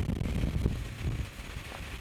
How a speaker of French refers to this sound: On va se mettre là-bas parce qu'il y a trop de vent.